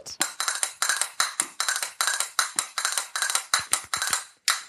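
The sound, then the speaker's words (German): Castanets clack in quick, rattling bursts, played in as a suspense effect, a steady stream of sharp, bright clicks with brief pauses between flurries, loud and with no voices alongside. “Ja, nee, dass wir Kastanietten als Spannungselement einspielen.”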